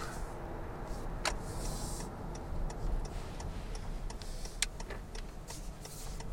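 Steady low engine and road rumble inside a car driving at night, with a regular soft ticking like a turn signal and a few sharp clicks; no one speaks.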